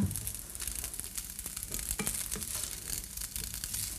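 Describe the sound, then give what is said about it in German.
Tofu nuggets sizzle in a pan, a steady dense crackle with scattered louder pops and clicks, continuous, with no one talking. “Hört sie das? Und es klingelt und es klingelt vor sich hin.”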